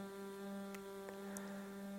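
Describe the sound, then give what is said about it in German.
A soft, steady hum made while breathing out in a breathing exercise, held at one pitch for the whole stretch, continuous and unbroken, with a couple of faint clicks in the background. “Atme aus mit dem Summklang, Freude im Herzen, sanftes Pulsieren.”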